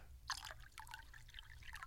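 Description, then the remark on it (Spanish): Water trickles and drips in a steady, bubbling stream, with bright splashy droplets scattered throughout and a low rumble underneath; moderately quiet, with no voices. “La hidromancia, que te permite mirar el pasado y el futuro mediante el flujo y el reflujo del agua.”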